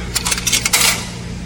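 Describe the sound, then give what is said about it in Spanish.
Several coins clink and drop into the metal coin slot of a laundry machine in quick succession after clothes are loaded, a short burst of bright metallic jingles, with a low mechanical hum underneath. “Y vamos a poner las monedas.”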